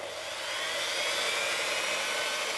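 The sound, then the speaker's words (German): A steady electric kitchen mixer whirs on its first speed setting, a continuous motor hum with a high, airy whine that holds an even pitch and volume throughout, with no voices. “Wie zum Beispiel eine Mikrowelle, ein Backofen, eine Waschmaschine, ein Radio, ein Toaster, Mixer.”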